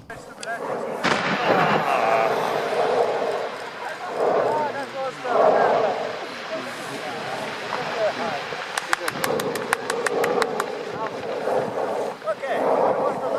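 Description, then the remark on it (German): Deep rumbling booms from a May eruption of Etna, Europe's largest active volcano, over 3000 metres high, followed by a burst of sharp, rapid clicks and people applauding and cheering the eruption, with voices mixed into the noise throughout. “Wir haben hier zum Beispiel den Ausbruch, der ist von diesem Jahr im Mai.”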